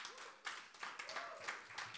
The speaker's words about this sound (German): Und ich bin so stolz auf euch, dass ihr hier Campuspastoren seid. Und ihr macht das wundervoll. Und ich denke, wir können Ihnen kurz einen Applaus geben, oder?